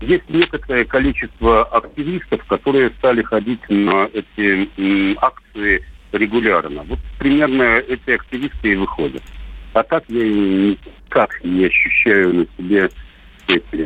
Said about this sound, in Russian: К сожалению, не можем продолжить с вами разговор. Очень плохо вас слышно, некие помехи. Ну, понятно, с чем они связаны. Интернет тоже там работает с перебоями.